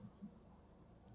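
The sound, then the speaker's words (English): A steady, high-pitched buzz of cicadas surrounding the speaker drones throughout with a slight pulsing texture, continuous and fairly quiet. No one speaks. “Uh, yes, I'll mute myself uh, to try and reduce cicada noise.”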